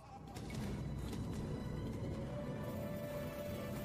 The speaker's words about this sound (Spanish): De pronto, se escuchó un correr de caballo que relinchaba. Con la luz de la luna, se veía la silueta de un caballo negro que sacaba lumbre de las piedras con sus cascos